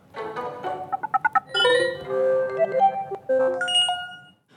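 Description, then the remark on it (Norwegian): A bright electronic app notification tone plays alone on a mobile phone: a quick run of short staccato beeps, then sustained melodic synth tones rising and falling, clear, ending abruptly. “Og ved å gi deg varslinger i ett kjør, så sørger de for å ikke bli glemt.”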